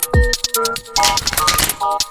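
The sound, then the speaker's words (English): A deck of tarot cards being shuffled, a quick run of crisp fluttering riffles and taps that rattle on for a couple of seconds, with faint tonal music in the background. “Let me get these cards shuffled up real quick.”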